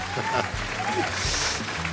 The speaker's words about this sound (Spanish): Muchas gracias. La ovación del público que nos acompaña desde 2015, que habíamos arrancado esta historia de CP e más urbana, Circo Pirata.